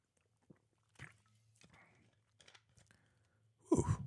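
Quiet mouth sounds of someone sipping water: a few soft slurps and clicks, then a gulp, ending with a louder breathy exhale. No talking.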